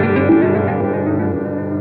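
A guitar pedal effect slowly ramps down after the pedal is pressed, a sustained, loud, harmonically rich tone with a reverb-like wash that gradually thins out across the whole stretch, without any voices.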